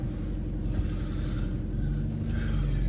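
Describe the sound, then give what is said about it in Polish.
Steady low engine and road rumble from inside a rented Volkswagen Golf while driving, a continuous, fairly loud drone with no voices. “Jedziemy dzisiaj golfem.”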